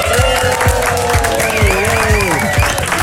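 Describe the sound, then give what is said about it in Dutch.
A loud burst of pre-recorded crowd applause, recorded before COVID rules stopped audiences clapping, with scattered cheering, dense continuous clapping filling the whole few seconds, with some whistle-like tones and voices mixed in. “Het is zo opgenomen toen we nog mochten klappen, mensen. Dus het is allemaal, het is allemaal fake.”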